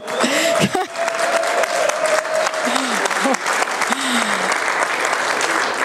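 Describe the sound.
An audience breaks into steady, dense applause lasting about six seconds, many hands clapping at once, with a few voices calling out and whooping over the clapping.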